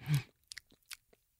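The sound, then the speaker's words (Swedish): A person imitates the lip smacking a sister made while sleeping: a soft, breathy mouth sound followed by three or four quiet, wet smacks and clicks at an irregular pace, with no talking. “För det gjorde min syster när hon sov, att hon smaskade lite.”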